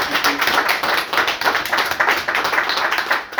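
An audience at an evening fundraising event breaks into steady applause for an author's book, a dense wash of many hands clapping at once, loud and sustained throughout with no voices standing out.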